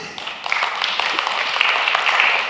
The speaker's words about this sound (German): Amen. Auch da gehört ein Applaus dazu.